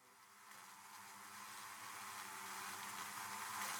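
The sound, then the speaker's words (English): A steady droning buzz of bees, a dense humming swarm with an airy hiss on top, growing gradually louder over a few seconds with no voices. “It was time to wake the bees.”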